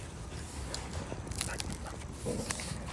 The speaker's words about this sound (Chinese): 这几只傻狗